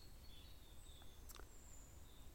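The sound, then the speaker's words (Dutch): Faint birdsong in a forest by a woodshed: thin high whistles and a brief chirp or two over a soft, steady low rumble, with no one speaking. “En je hoort dus aan de vogeltjes en aan mijn stem.”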